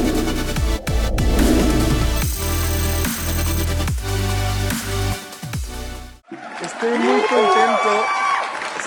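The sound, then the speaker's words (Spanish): Upbeat music plays for several seconds, then cuts to a loud burst of crowd cheering and applause with whoops and shouts filling the final few seconds. “me olvidó de los aplausos”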